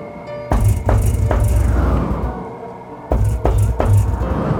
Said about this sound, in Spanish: La puerta de su habitación estaba cerrada. De pronto pudo escuchar cómo golpearon la puerta.